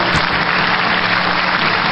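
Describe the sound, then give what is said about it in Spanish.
A crowd applauds Hugo Chávez after he says the FARC and ELN are not terrorist groups but real armies: a dense wash of many hands clapping at once, loud and sustained throughout with no voices over it. “Y le aplaude.”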